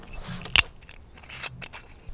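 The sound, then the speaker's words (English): Plastic cups of Spanish wine tapped together in a toast outdoors, one sharp, dull click followed by a couple of softer light taps over a quiet background of birds and wind. “These are plastic cups because if you can hear the birds in the wind, we are outside.”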